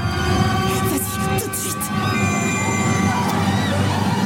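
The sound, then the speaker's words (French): A train rolls along with a steady low rumble while its wheels squeal on the rails in sustained, high metallic tones, loud throughout. “Et à force d'obstination, Nicolas Winton organise des voyages en train.”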